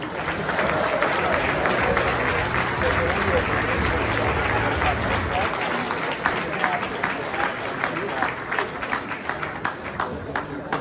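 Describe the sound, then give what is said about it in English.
A large crowd applauds steadily for the governor of Illinois as he comes on to speak about the Illinois cannabis market, sustained clapping for several seconds, with scattered cheers and a low murmur underneath. “please give a very big round of applause for Governor J.B.”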